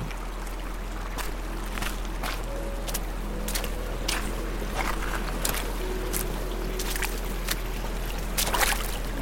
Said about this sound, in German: Und je höher du steigst, desto energischer strömt dir das Wasser entgegen. Bald nicht mehr nur in einzelnen Bachbetten, sondern von überall kommend, von oben auf dich zufließend um deine Schuhe herum und weiter nach unten über Gras und Heide und